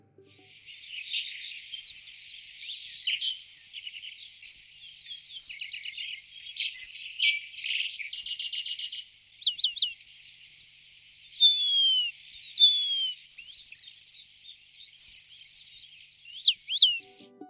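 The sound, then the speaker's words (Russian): Eurasian penduline tit, a tiny bird about 11 cm long and smaller than a sparrow, calls ring out clearly in a steady series of thin, high, descending whistles and buzzy trills, repeated every second or so with no talking. “В Нижегородской области ремезы зафиксированы в Арнаевском районе, в Ротынском районе и вот вблизи Нижнего Новгорода”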